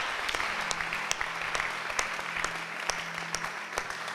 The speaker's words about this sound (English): Hey, hey, you are not clapping, you are not clapping.